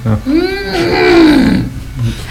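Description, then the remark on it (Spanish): A single drawn-out elephant trumpet, loud, swelling and then bending downward over about a second before trailing off into a low murmur. “Eso fue un elefante”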